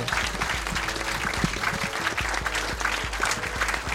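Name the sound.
audience applause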